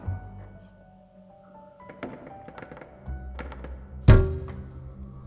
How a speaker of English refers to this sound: He awoke to the sound of something hard hitting a window. At first, he thought it was local kids flinging rocks, but when he cleared his eyes, he saw a small cluster of down feathers and a faint pink smear on the glass.